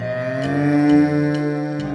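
A long, low cow moo drones steadily for about two seconds, swelling slightly in the middle, while faint clock-like ticks sound at a slow, regular pace in the background.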